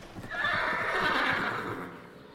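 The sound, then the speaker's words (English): Carriage horses come to a stop with a loud, drawn-out whinny, bright and wavering, with faint hoof clatter and rustling underneath. No one speaks. “Uh, but with a whinny, the horses stop.”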